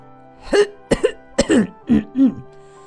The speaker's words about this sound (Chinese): 他清了清嗓子